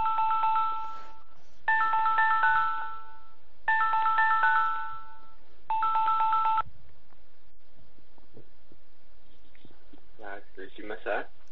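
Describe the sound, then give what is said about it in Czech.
A telephone ringing tone repeats in four loud electronic bursts of layered chiming notes as the studio connects the next caller, then stops as a voice briefly comes on the line. “A a já poprosím režii, aby nám spojila dalšího volajícího. Jo, tak to je signál.”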